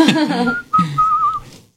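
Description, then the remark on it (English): Someone whistles a short background tune, a clear sustained pitch that slides and wavers across a couple of phrases, with a brief vocal sound underneath at the start, fading out after about two seconds. “I'm just giving a background whistling.”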